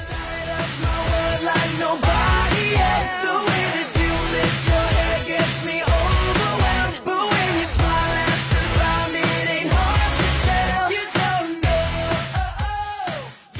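An up-tempo power pop song plays loud and steady, with driving drums and a bright guitar riff running through a full band arrangement, no talking over it.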